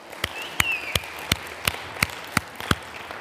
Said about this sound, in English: Why don't we uh, give a round of applause to the worship team? All right, they're awesome, aren't they?